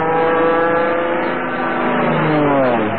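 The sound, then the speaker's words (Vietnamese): A loud, buzzing motorbike engine roars at high speed, its pitch holding steady before dropping sharply near the end as the motorbike races past. “À mà Snow thấy bây giờ các đôi nam nữ học sinh sinh viên nhà mình toàn đi xe máy thôi, phóng cứ phải phè.”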